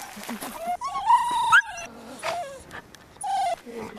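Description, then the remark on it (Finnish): Excited dog whining in high, rising whimpers, broken by a few short barks, with brief pauses between outbursts and faint outdoor background noise, as the dogs set off for a walk. “Sä oot täällä sun ihanien koirien kanssa lähdössä rennosti kävelemään.”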